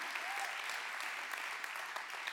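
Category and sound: crowd, audience clapping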